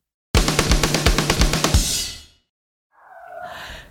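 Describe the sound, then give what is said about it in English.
A dog named Gertie barks loudly in a rough, rapid burst of about two seconds, then after a short pause lets out a higher, softer whining yelp. “Sorry, that's my dog, Gertie, barking.”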